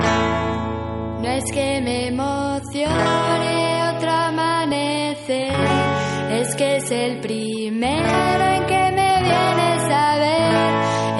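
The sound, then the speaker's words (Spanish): A Spanish pop song from 1998 plays loud and steady, a singer's voice carrying the melody over a full band of guitars, bass and drums for the whole stretch. “Ellos eran …, esto suena así de bien ….”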